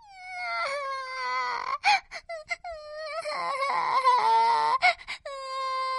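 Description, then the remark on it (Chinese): A loud, sustained crying wail from the Weather Baby, a character who lives on thick clouds, with rising and falling pitch, broken by sobbing catches and short gasps, then swelling into long drawn-out howls. “他要是哭起来”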